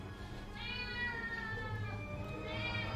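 A cat meows twice, a long drawn-out wail followed by a second rising call, loud, with no one talking over it.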